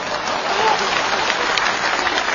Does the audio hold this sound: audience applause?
yes